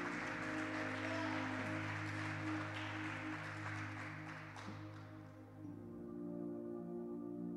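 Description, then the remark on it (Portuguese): An audience applauds in a dense, steady wash of clapping over a sustained musical chord underneath. The clapping thins and fades out toward the end, leaving the held tones. “Aplauda, ele merece.”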